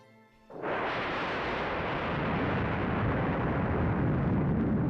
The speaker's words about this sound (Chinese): 这时候，只听见轰隆隆的一声巨响，小黑猫一哆嗦，它来不及多想，从地上一跃而起，竖起尾巴，一路狂奔，飞快地跑回了家。